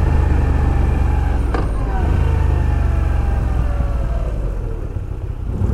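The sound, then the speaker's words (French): A V9 Bobber motorcycle engine drones loudly while riding, its steady rumble slowly dropping in pitch as the throttle eases, with constant low wind noise underneath. “On est reparti avec euh, cette euh, V9 euh, Bobber.”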